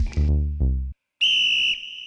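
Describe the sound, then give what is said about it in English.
A coach blows a shrill, sustained, loud whistle blast during a match, following two short lower-pitched sweeping tones and a brief pause. “So his coach blows the whistle, and I'm just breathing ridiculously heavy, and my face is all swollen and I'm bleeding.”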